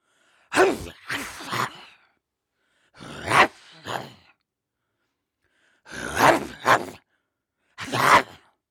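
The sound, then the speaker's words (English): A person makes short, raspy growling noises in bursts into a microphone, imitating a snarling dog. About five rough growls come in clusters with pauses between them. “Number one is me making silly growly noises into a microphone, which I can only do in short bursts because it gives me a sore throat.”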